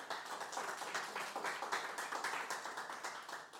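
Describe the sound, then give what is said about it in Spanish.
An audience at a church service applauding for the Lord: many hands clapping in a steady, dense patter that holds at an even, moderate loudness for a few seconds, with no voices over it. “Y eso solamente Dios lo puede hacer, por lo cual yo le pido un aplauso para nuestro Señor.”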